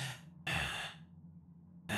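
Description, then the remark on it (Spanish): A voice imitates the heavy, agitated breathing of a person in a trance: three forceful breaths in quick succession, loud, with a low vocal rasp humming underneath between them. “Como esa respiración muy agitada.”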